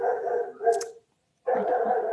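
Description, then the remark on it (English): A dog barks and yelps in two loud bursts separated by a brief silent pause, with no one talking. “My dog is the worst.”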